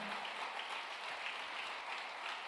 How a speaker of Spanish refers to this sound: Vamos, denle el aplauso fuerte.